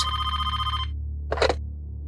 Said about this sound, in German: Um 11.23 Uhr läutet das Telefon von Thomas Bögerl.